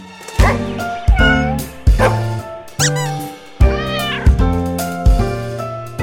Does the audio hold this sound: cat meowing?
yes